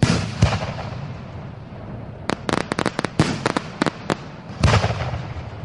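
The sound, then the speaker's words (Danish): Firework mortar shots go off outdoors from a mortar tube turned the wrong way, firing directly into a crowd of people: a heavy boom opens, a quick run of sharp cracking bangs follows in the middle, and another loud boom lands near the end over a steady crowd-like rumble. “Han har allerede fyret tre skud af direkte mod folket.”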